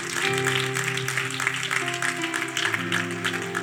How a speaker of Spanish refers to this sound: Yo les quiero decir que ustedes son los invitados de honor. Dese un aplauso a ustedes mismos.